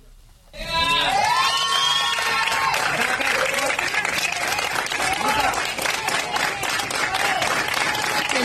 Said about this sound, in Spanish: Vamos a escuchar este momento en el que los estudiantes son liberados de Puente Grande y pues gritan. las consignas a favor de su libertad.